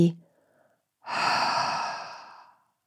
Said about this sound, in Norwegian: en stor HA på utpust med åpen munn, som om du prøver å puste dugg på et speil foran ansiktet ditt. Og så kan du forsøke å frembringe denne lyden på neste utpust med lukket munn.